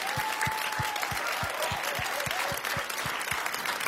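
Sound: audience applause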